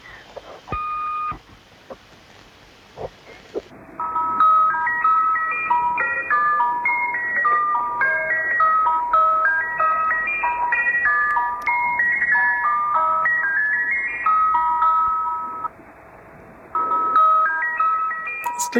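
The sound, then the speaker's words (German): A tinny, tinkling music-box melody broadcast by a numbers station plays through a hiss of shortwave radio static, looping its cheerful phrase steadily after a few seconds of crackling noise and a brief tone. “Sehr, sehr widerlich auch äh, die Swedish Rhapsody”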